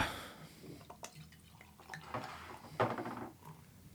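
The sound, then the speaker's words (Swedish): Beer is poured into glasses, with splashing, gurgling liquid and a few light clinks of glass, rising to a louder burst of pouring near the end; no one speaks. “Eh, då häller vi upp.”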